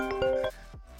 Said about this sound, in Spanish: ¿Qué pasó? Me, estaban llamando por teléfono. Esta es la vida real, señor. Eh, me estaban llamando por teléfono.